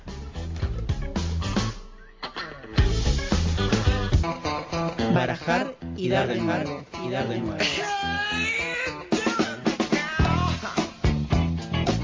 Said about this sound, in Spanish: Bueno, vamos a escuchar eh, ahí un, temita y volvemos para la columna principal.